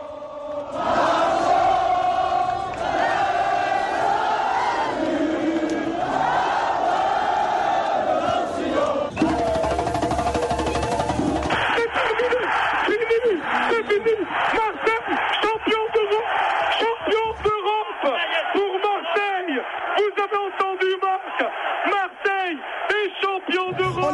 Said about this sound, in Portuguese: um pouquinho da torcida cantando o hino francês na, na durante a premiação da, da, do time do Olympique, lá em Munique